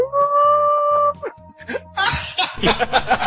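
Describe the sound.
A person imitates a long, drawn-out howl, a steady wavering tone held for about a second, then breaks into loud laughter and chatter.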